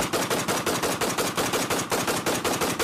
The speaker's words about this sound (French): Effectivement, depuis une minute à peine. Ce sont des échanges de tirs incroyablement fournis qu'on entend des armes automatiques. Il y a également des explosions très fortes, très lourdes.